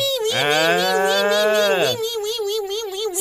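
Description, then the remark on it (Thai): A voice imitates a mosquito's whining buzz, the sound of its wings flapping fast and hard as it seeks a mate. A sustained, nasal, droning hum is held for over a second, then a thinner, wavering whine trembles on to the end. Fairly loud. “เสียงวีวีแบบนี้เนี่ยเพราะมันกำลังกับพือปีกเพื่อที่จะหาคู่นะบอกเลยแล้วมันมากระพือปีกที่หูทำไมล่ะจริง ๆ มันก็บินของมันไปตามปกตินั่นแหละ”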